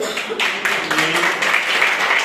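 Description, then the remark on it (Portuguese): An audience at an evening church service applauds in praise of the Lord in a steady, dense wash of clapping that holds at an even loudness for a couple of seconds, with faint voices murmuring underneath. “Eu agradeço a oportunidade, as palmas que louvam ao Senhor.”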